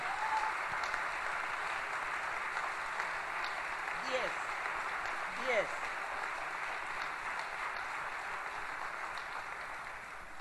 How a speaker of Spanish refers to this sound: Fuerte el aplauso para toda la gente de la técnica de esta sala de cámara maravillosa de la usina del arte.